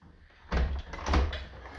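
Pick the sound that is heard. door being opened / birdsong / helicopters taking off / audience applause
door being opened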